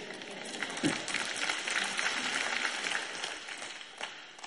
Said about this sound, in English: You must be tired. You're clapping awful quiet this morning.